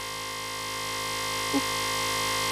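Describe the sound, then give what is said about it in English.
A quiz game buzzer sounds one long, steady, harsh buzzing tone that holds for a couple of seconds, loud, with no talking over it. “Oh, oh buzz.”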